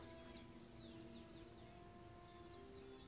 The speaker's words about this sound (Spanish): A ver si hay pajaritos cantando.